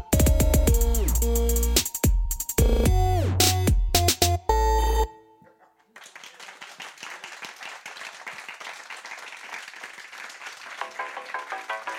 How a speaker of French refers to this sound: C'est quoi C'est ton téléphone, mec. Ouais, Putain, c'est on mon a dit mode avion, c'est concert là, vas-y.